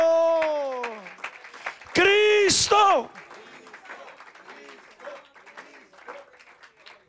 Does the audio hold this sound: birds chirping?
no